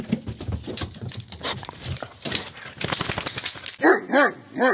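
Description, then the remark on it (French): After a few seconds of busy, cluttered background noise, a dog named Pompidou lets out two or three sharp, high-pitched barks in quick succession. “Pompidou Pompidou Et il est passé où ce chien encore Pompidou Ben où t'es Viens par ici, je l'ai ce coup-ci”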